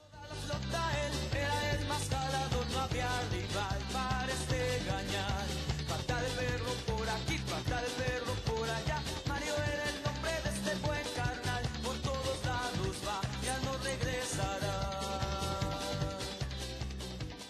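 A loud, upbeat music track, played as entrance music when author Juan Luis R. Ponza arrives on the radio show La Mujer Actual, plays continuously with no talking over it, a dense full-band sound with a steady driving beat holding at even volume throughout.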